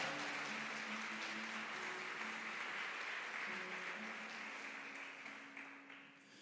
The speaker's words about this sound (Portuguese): Aplauda Ele bem forte, bem forte, bem forte.